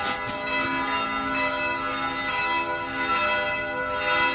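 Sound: church bells ringing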